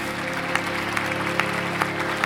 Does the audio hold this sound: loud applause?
yes